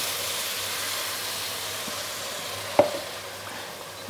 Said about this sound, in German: Und ich tue jetzt ablöschen ja. mit Wein. Mhm. Und ganz wichtig ist aber nachher, dass man immer nur so viel, wird es einmal laut